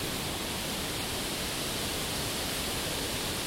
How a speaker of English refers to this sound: Yeah, it's very gentle rain. It's just the lightest possible rain. It's almost like a mist.